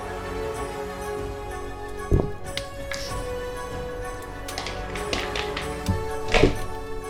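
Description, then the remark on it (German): Two six-sided dice are rolled on a table, several sharp clattering taps scattered over a few seconds as they tumble and knock, moderately loud over a faint steady background hum. “Würfel mal mit zwei sechsseitigen Würfeln, bitte.”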